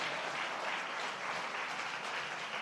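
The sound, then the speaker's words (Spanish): A crowd of people applauding together for the Lord, a dense, steady wash of clapping that stays loud and even throughout with no one speaking over it. “Pero entonces, denle un aplauso al Señor.”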